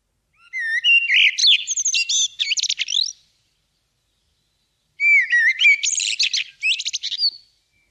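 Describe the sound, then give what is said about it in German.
Two clear phrases of common blackbird song, each a run of fluty warbling notes ending in higher twittering, separated by a couple of seconds of silence; fairly loud and without background noise. “das ist die Amsel”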